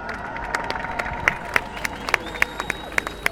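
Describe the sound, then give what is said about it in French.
A crowd applauds and cheers as a speaker from La Voix des Roms is called to speak. Sharp claps fall into a steady rhythm over a continuous wash of voices and a few sustained whistle-like cheers. “Merci de faire du bruit.”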